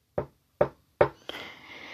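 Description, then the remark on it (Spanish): Three sharp knocks on a patio door, evenly spaced about half a second apart, followed by a steady rushing hiss that lingers to the end. “otra vez escuché que tocaron el patio, ya lo había dicho aquí varias veces, que tocaron el, patio, la puerta de patio tres veces así.”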